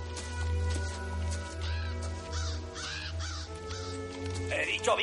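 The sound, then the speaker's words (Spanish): Several crows covering the body of Cisco on a meadow caw repeatedly in harsh, rasping calls that overlap, over a steady low rumble in the background. “John se detiene y mira hacia la pradera donde los cuervos cubren el cuerpo de Cisco.”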